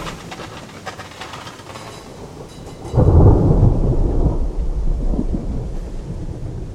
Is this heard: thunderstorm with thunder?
yes